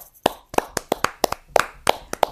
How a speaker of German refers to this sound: Können wir das mal, da, da muss ja erstmal einen Applaus für geben. Oder sollen wir mal applaudieren jetzt? Komm.